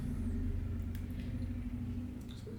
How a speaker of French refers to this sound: J'entends les, motos dans le fond, ça c'est top comme musique de fond.